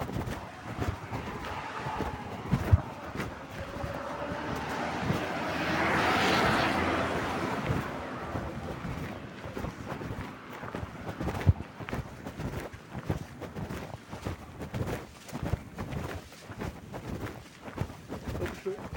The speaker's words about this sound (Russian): квадрокоптер какой-то летает.